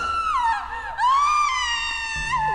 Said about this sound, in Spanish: Se escucharon varias exclamaciones y algunos oh sutiles, pero lo que nadie esperaba fue un grito desgarrador.